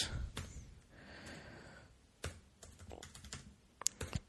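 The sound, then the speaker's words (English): Keys tapped on a computer keyboard during a Google search, in quick, uneven bursts of sharp clicks, with a soft breathy pause in the middle. Fairly quiet, with no one speaking. “I'm doing a Google search for necessary tumblings.”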